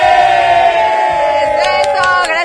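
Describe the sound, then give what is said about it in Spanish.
Several voices shout "¡Es viernes!" together in one sustained, loud, tonal cry that holds steady and then wavers slightly toward the end, a group chant yelled in unison. “vamos a volver a gritar entonces.”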